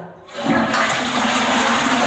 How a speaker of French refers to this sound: j'ai oublié de tirer la chasse.